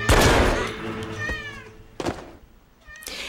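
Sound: kitten meowing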